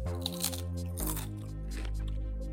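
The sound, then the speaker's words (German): Several crisp, crackly crunches as someone bites into ridged potato chips, the sharp bursts landing in quick succession over a steady low hum, with no talking. “der ist geiler geriffelt als die salzigen Chips, die wir davor gegessen haben”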